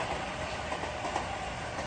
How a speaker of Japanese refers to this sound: あまた電車来ました線路の近くなんで電車よう通ります